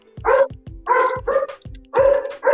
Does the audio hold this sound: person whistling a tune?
no